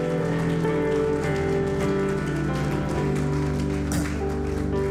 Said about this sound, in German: Hey, lass uns denen ihre Hände gut machen, einen fetten Applaus geben. Das ist großartig.